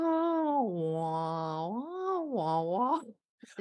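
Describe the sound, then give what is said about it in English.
A woman imitates whale song, a long, loud vocal moan that slides down, rises, and swoops again over about three seconds before breaking off into a short pause. “She's being the whale.”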